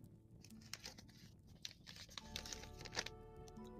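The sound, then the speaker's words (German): A piece of paper is crinkled and handled, with a steady run of dry rustling and crisp crackles that sharpen toward the end. A faint tonal hum lies underneath. “Valimaro, was ist das hier bitte? Äh, ein Stück Papier, was sonst?”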